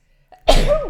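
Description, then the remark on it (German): A single loud sneeze: a soft catch of breath, then a sudden explosive burst with a voiced, ringing tail that fades out. “Gesundheit.”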